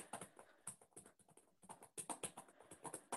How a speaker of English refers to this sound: Sometimes if you listen really faintly, you can hear people typing.